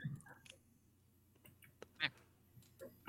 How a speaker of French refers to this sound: Ah, le canard est parti.